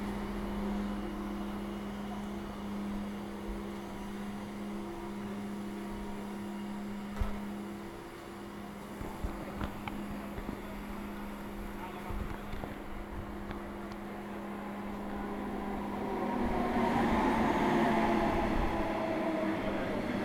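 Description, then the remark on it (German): A diesel train engine idles at a railway station, recorded with the device held right against the train, with a steady low hum and droning tones, a few clanks and knocks midway, then the engine noise swells louder toward the end. “Ich stand hier an so einem Zug mit einem Dieselmotor und bin mal recht nah rangegangen mit dem Gerät, habe das also mal richtig an den Zug gehalten.”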